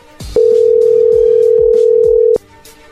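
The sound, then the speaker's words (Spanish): A phone line rings back as the call is placed again: one steady, loud electronic tone holds for about two seconds, then cuts off, with faint clicks and taps in the background. “No, ya no, contestó. Ahí va de nuevo.”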